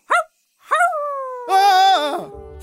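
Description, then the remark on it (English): A single short, sharp bark gives way to a long, drawn-out wolf howl outside at night that rises, holds steady and then fades, fairly loud with no talking. “But he was extra specially scared of the wolves outside.”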